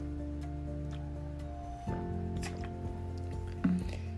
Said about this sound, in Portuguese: Enquanto isso, eu vou tomar uma água.